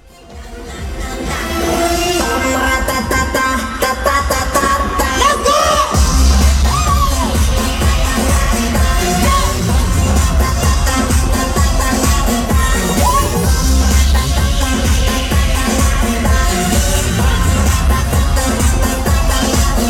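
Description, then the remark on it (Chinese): A loud live concert recording filmed on a mobile phone by a fan: a song with heavy bass and sustained melody plays throughout while a crowd cheers and shouts underneath, with the noise staying dense and steady after a quick swell at the start. “因为我的手毕竟是听到了前奏才开始拍摄，所以呢，我们就来听一小段，感受一下现场热烈的气氛。”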